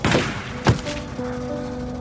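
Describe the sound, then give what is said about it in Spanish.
A single booming gunshot, fired from the passenger window of a red car, cracks out after a softer burst of noise. A faint, steady humming tone lingers for the rest of the moment. No voices are heard. “La ventana del copiloto desciende poco a poco, el cañón de un arma brilla y se escucha el estruendo que le arranca la vida.”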